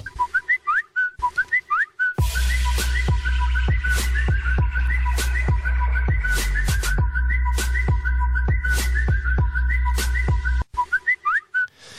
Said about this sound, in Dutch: Ja, je hoort het goed. Wat een social media geluidjes allemaal in deze tune. Het is tijd voor de eerste editie van onze vragenrubriek.